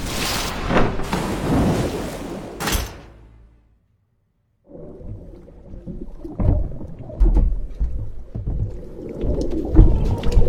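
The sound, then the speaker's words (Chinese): A loud, rushing crash of water as a magician falls from the stage, after a lightning flash in a magic show, into a water tank below, a brief silence, then muffled, churning sloshing and thrashing that swells and surges underwater. “而上面的狼叔继续他的表演，在闪电过后，狼叔顺利的掉了下来，只是没有想到。掉到了水箱里。”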